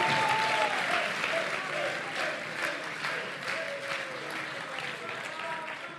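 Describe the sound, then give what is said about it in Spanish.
An awards audience applauds Cuaderno de Podcasting, winner of the business and technology category, steadily for several seconds, a dense wash of clapping hands at a fairly even level, with a few faint voices and whistles mixed into the crowd noise. “Un aplauso.”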